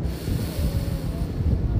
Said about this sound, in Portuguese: E deixa o vento, respira e sente o vento bater no teu rosto.